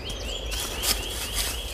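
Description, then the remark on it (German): Birds chirp in quick, thin calls, along with a woodpecker, over the steady rush of a stream that people are walking along, the chirps fairly clear against the constant water noise. “Aber ich glaube, ich glaub, ihr hört eher das Vögel zwitschern.”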